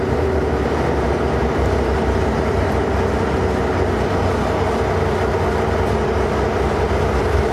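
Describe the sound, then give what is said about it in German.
A locomotive's diesel engine, the third of its four engines, starts up and rumbles steadily and loudly, a dense, even low drone that holds without a break for several seconds, with no voices. “Das ist Motor 3 und ein seltenes Phänomen, die Lok macht die Motoren wirklich in der Reihenfolge an.”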